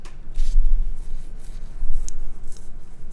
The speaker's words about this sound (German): wir die Klimaanlage hören und Gustis Bad